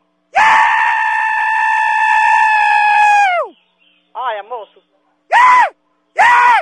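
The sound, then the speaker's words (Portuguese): A man screams loudly over the phone in one long, sustained yell, then lets out a brief wavering cry and two more short, sharp shrieks after pauses. “Olha, ele disse que tá gritando pra espantar a catinga do seu sovaco.”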